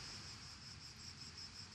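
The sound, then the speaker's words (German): A steady chorus of crickets chirps continuously in the background, a high, shrill trill pulsing faintly in rhythm over a low ambient rumble, with no voices present. “Die Zirpen. Die, die Grillen. Zupen, Zuppen an meinen Nerven.”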